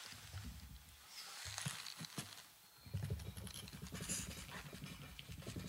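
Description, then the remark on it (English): A person imitates a far-off helicopter with their mouth: a steady, breathy, rhythmic chopping sound, low and muffled, continuing for several seconds without any words. “Let's see if we can make a helicopter sound.”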